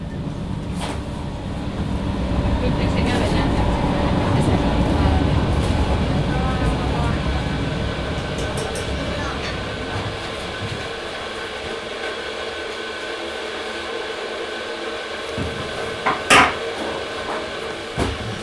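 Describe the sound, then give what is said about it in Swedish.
Steady low rumble of a metro train in motion, with rattling and occasional sharp clicks and squeaks, fading slightly toward the end; murmured voices sit underneath. “Så därför sitter jag på metron för att sitta hos psykologen för att förbereda mig för att få svar.”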